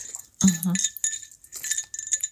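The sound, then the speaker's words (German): Metal carnival association medals clink and jingle together as they are put on, in two close, bright bursts, a rapid shimmer of small metallic chinks with a short pause between them, and a brief low voiced sound at the start. “das Klimpern.”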